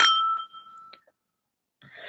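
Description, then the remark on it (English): Glasses clink together in a toast with a bright, ringing tone that hangs for nearly a second. A small tap follows, then a short burst of soft noise. “So, with that, cheers. Cheers.”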